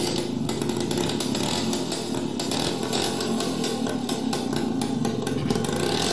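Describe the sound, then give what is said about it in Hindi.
A scooter engine, started with a kick-start after several kicks, runs loudly, a raspy, buzzing drone that holds steady for the whole stretch with slight revving wobbles and no voices. “अरे साहब फिर तो मैंने एक दो तीन तैर किक मारी और स्कूटर स्टार्ट”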